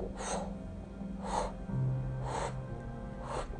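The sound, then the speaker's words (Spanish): Someone uses their voice to imitate a large bird flying into a room and flapping its wings: four breathy, whooshing bursts at a steady, unhurried rhythm, with a low hum underneath and no talking. “o bajamos los dos y escuchamos cómo entra un pájaro grande, no chiquito, y hace un aleteo.”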